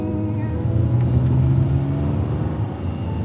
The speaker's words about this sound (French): De retour vers New York, je suis assise dans la voiture. Al conduit.